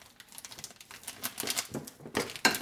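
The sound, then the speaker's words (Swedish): Crinkling and rustling of plastic wrapping as a marzipan package is pulled open, with irregular soft crackles building to a couple of sharper tearing bursts near the end. “Jag öppnar den här marsipanen.”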